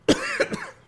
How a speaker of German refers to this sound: Gesundheit. Ja, das, das macht er auch immer vorher. Was? Husten? Ja. Nö. Du machst, Räuspern, du machst ja. immer vorher. ja, ich räuspere mir, ich huste doch jedes Mal vor dem Podcast.